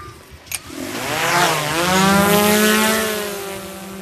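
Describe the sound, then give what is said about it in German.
A drone with a thermal camera lifts off over a field of tall grass to search for roe deer fawns, its rotors spinning up into a buzzing whine that climbs steadily in pitch, then holds a loud, even drone. A short click comes just before the motors start. No one speaks. “So, die Drohne steigt auf.”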